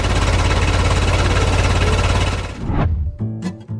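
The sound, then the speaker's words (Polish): A car engine runs loud with a rough, rapidly pulsing rumble for a few seconds, then cuts out abruptly, leaving a brief, steady tonal hum. “A teraz co chwilę dzwoni, żeby silnika posłuchać.”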